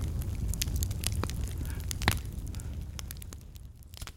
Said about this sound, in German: Gleich darauf kommt ein Feuersbrunst. So richtig Feuer. Alles hat sich rot verfärbt.